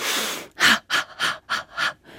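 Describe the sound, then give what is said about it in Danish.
A demonstrated breathing rhythm, as practised in breathing-rhythm training: a long noisy exhale followed by five quick, sharp breaths in a steady rhythm, each a short airy burst, with no talking. “Og vi trænede forskellige åndedrætsrytmer.”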